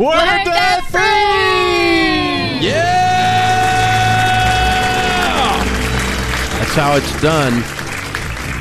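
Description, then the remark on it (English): A family from Hudsonville, Michigan, bursts into a loud, drawn-out celebratory debt-free scream together after paying off their debt, rising and falling, with cheering and clapping behind it, then a man's excited shouting over the crowd noise. “Let's hear a debt-free scream.”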